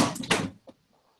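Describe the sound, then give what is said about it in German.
A chair topples over with a loud clattering crash lasting about half a second, followed by one softer knock as it settles, then quiet. “Mir gleich der Stuhl runtergegangen.”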